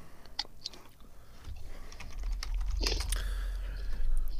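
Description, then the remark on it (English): Crunchy chewing, a string of sharp brittle cracks and crackles over a low rumble, as someone bites into and munches a Kit Kat chocolate wafer bar with a crunchy wafer inside and smooth chocolate outside, with no talking. “so have a bit of munch. The crunchy wafer. Very crunchy.”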